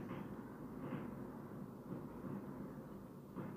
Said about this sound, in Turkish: Evet şu an savaş çıktı galiba. şu savaş çıktı arkadaşlar. Ben Havai fişek de olabilir. Havai fişek ya.